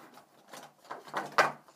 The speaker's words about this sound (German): So, jetzt steht es wieder. Das ist so ein Stiftebecher. Das ist einfach nur umgekippt.